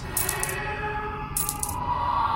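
Bright metallic clinking of coins pulses in bursts like a heartbeat, roughly once per second, over a steady humming background, loud.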